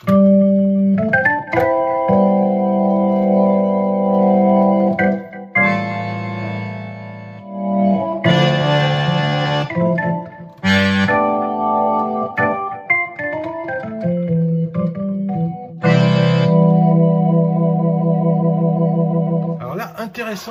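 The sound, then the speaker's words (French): A digital accordion plays organ sounds with a Leslie effect: loud, sustained chords that shift every second or two, with a steady buzzing tone and a faint swirling warble, and no talking. “Non, avant de voir les mémoires, il y a des sons d'orgue aussi.”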